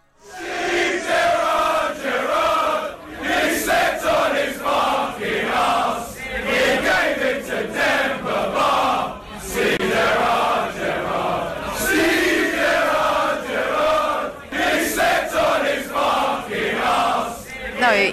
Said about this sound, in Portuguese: Então vamos ouvir aí a torcida do Chelsea cantando, homenageando o Steven Gerrard, o maior ídolo da história do Liverpool.